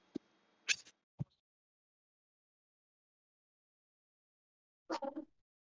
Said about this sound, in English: Oh, your cat, man.